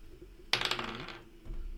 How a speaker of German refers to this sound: würfel mal bitte auf Athletik mit Advantage.